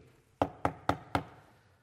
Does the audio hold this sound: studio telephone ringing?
no